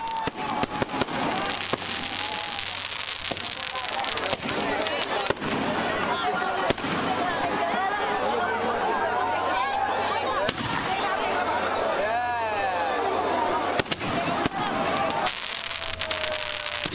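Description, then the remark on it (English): Fireworks and firecrackers crack and bang repeatedly in irregular bursts, some whistling as they rise, over a constant wash of crowd chatter and festive background noise at an outdoor Diwali celebration in the streets in India. “Being an Indian festival, there's lots of music, lots of dancing, and lots and lots of fireworks.”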